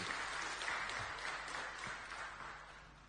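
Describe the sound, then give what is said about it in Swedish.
An audience applauds steadily for about three seconds, a dense wash of many hands clapping at an even level that eases off slightly toward the end, with no voices. “Det, förr i världen så var det aldrig några applåder.”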